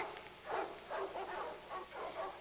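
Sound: dogs barking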